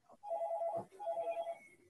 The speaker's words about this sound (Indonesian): nah telepon siapa tuh angkat dulu